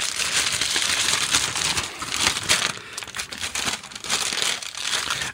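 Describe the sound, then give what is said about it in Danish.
A large sack being opened with continuous, dense crinkling and rustling of stiff material, loud and steady for about five seconds with small irregular bursts and no talking. “Jamen, du skal selv få lov til at, at åbne den.”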